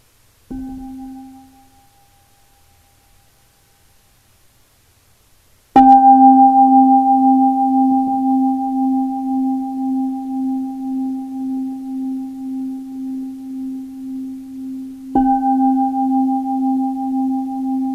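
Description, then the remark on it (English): A meditation bell is struck three times: a soft first tap that fades quickly, then two full, resonant strikes whose low, steady hum rings on with a gentle wavering pulse. No one speaks. “So I'll invite the bell for us to breathe and come into presence together.”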